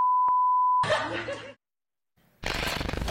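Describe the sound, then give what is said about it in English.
A steady, loud censor bleep tone runs for nearly a second over profanity, then cuts to animated, rowdy voices of Chivas soccer players, a short silence, and more excited talking. “Um, you heard the beep.”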